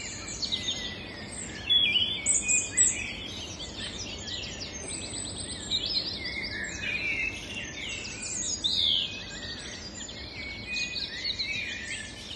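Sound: birds chirping and singing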